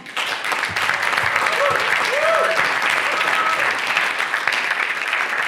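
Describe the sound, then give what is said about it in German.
An audience applauds steadily as a woman is invited onto the stage, a dense wash of clapping that stays loud and even throughout, with a few brief cheers or whistles rising above it. “Und ich möchte sie jetzt auf die Bühne bitten mit einem grossen Applaus.”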